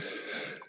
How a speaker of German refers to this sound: Oder Gesundheit. Oder Gesundheit.